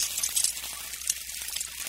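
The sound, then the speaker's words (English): A steady sizzle like food frying in a hot pan, with bright crackling and popping throughout the two seconds and no voices. “the sun cooks them,”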